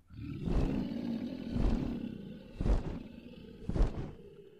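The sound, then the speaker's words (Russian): Deep, rumbling roars of a three-headed dragon flying in from a lake burst out four times at roughly one-second intervals over a low, continuous growl, loud, with no talking. “Вдруг летит с озера змей о трех головах.”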